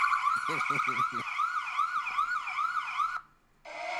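A loud ambulance siren, used as a phone alarm tone, wails in rapid rising-and-falling sweeps, with a few brief thumps early on, then cuts out for a moment before a different harsh tone starts.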